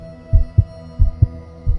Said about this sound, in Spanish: El roce al pisar el suelo helado me estremece, pero consigo levantarme y empiezo a andar, muy despacio, con un ritmo opuesto a los latidos desbocados de mi corazón.